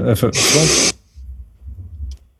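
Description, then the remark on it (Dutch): A brief vocal sound leads into one loud, hissing snort of breath forced through the nose, lasting about half a second, followed by a faint low murmur. “Wordt ook snuiven helemaal.”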